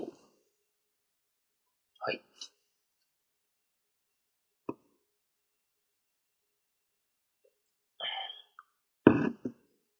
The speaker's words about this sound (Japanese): 今、アイスコーヒーを飲みました。失礼。こういう咳払いは、明日さんが気を使って編集段階でカットしてくれるかもしれないし、そのまま採用されるかもしれません。